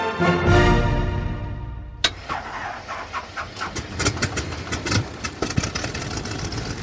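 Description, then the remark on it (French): A small steam engine turning two huge propellers on the front of Clément Adair's aircraft Éole, tested in 1890 in a château park near Paris, rumbles and whirs, then a sharp clank sets off irregular chuffing and rattling puffs with faint chirping, steady, with no one speaking. “un petit moteur à vapeur fait tourner deux immenses hélices placées sur le devant de l'appareil.”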